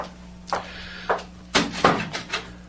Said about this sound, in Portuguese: Assim que a porta se fecha atrás de Lorena, Helena aproxima-se do leito do rapaz e pergunta suave: